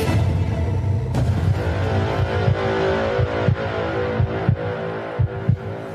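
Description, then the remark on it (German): A steady, booming heartbeat thumps in a repeating double-beat rhythm over a low, sustained hum, loud with no voices. “Je niedriger dein Puls, desto höher ist die Chance auf den Sieg.”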